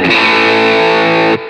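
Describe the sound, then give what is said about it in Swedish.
A single sustained chord on a heavily distorted electric guitar, bright and buzzing with dense harmonics, ringing loud and steady for over a second before cutting off abruptly. The guitar is played through a drive pedal with its post-tone control turned all the way up. No talking. “dra upp driven till max där på det här”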